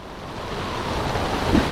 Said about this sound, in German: Dunkle Wolken sind binnen Sekunden über ihnen aufgezogen. Wasser bäumt sich unter ihnen auf. Direkt vor ihnen bildet sich ein riesenhafter Wasserwirbel. Kilometer hoch ragt er wie ein Tornado in den Himmel.